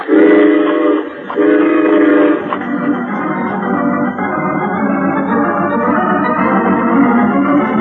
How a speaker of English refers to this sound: Let's be sure we're on that train when it pulls up.